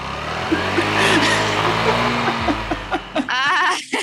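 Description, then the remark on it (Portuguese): A voice mimics a motorcycle revving while doing a wheelie, a sustained, buzzing engine drone that rises and wavers for about three seconds, followed by brief voices and laughter. “Coloca som de moto dando grau, tá ligado?”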